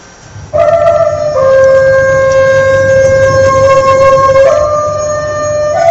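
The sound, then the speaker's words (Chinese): A Chinese bamboo flute plays the piece Gusu Xing solo, in Yu Junfa's version recorded at China Central Television, holding long, bright sustained notes that step down and back up in pitch in a slow, loud melodic line, with no talking. “我给大家要听到的是于老师这个原版的姑，就于老师这个版本的《姑苏行》，这是他在中央电视台录的像。”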